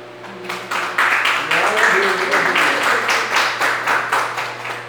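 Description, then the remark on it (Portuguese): An audience applauds together, a steady run of many hands clapping in a fairly even rhythm for several seconds, fairly loud, with a low hum and faint voices underneath. “Eu agradeço a oportunidade e as palmas do bom Senhor.”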